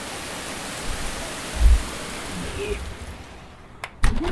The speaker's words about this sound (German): Regen-ASMR. Ja, also es regnet wie Sau, ey.